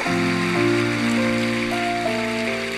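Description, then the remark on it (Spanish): A church audience applauds the Lord steadily throughout, a dense, loud patter of clapping over sustained keyboard chords that shift pitch a few times. “Y dale el mejor aplauso que le hayas dado al Señor en mucho tiempo.”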